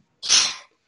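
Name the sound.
sneeze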